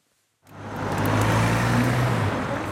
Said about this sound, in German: Das Bollwerk direkt beim Bahnhof Bern. Auf der dreispurigen Straße rauschen Autos und Busse vorbei, nebenan quietschen die Züge auf den Gleisen.